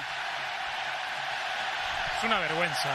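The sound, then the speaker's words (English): Mexican fans in a large football stadium crowd roar steadily as a dense wash of noise while the goalkeeper holds the ball, with a few voices rising in whoops and chants toward the end. “The Mexican fans are cheering.”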